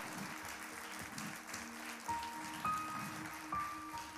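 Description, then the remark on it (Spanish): A church audience claps steadily as applause to God, a dense wash of applause with a few brief whistles or cheers rising above it, no one speaking. “Dele un aplauso bien fuerte al Señor.”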